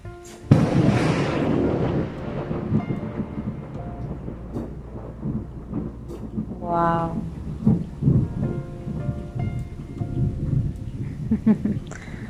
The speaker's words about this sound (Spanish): Wow, fue un trueno muy fuerte.